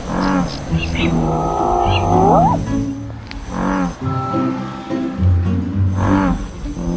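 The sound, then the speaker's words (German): Deep, resonant calls of an American bullfrog, with a 55 cm body, a poison-green head and milky-yellow vocal sacs, boom out at night in the Rhine floodplains in a couple of long, low, loud drones, over a busy background of other harmonic voices and night sounds. “Er hat einen giftgrünen Kopf milchig-gelbe Schallblasen und in der Nacht, da brüllt er.”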